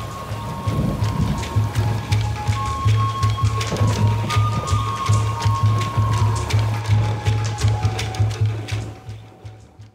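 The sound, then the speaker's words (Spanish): Heavy rain pours down steadily with a deep, continuous rumble of thunder underneath, loud, with scattered drips and splashes across the whole stretch, no voices present. “A su llegada a la ciudad, comenzó a caer una gran tormenta, haciendo la más espectacular de las entradas dignas de un dios del agua.”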